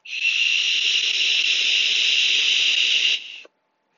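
A steady airy hiss lasting about three seconds as a person takes a single long hit on a vape, then it cuts off abruptly into silence. No one speaks.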